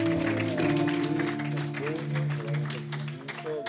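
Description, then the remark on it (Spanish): An audience applauds steadily for several seconds, the clapping mixed with sustained tones and voices underneath. “aplauso nuevamente, amén.”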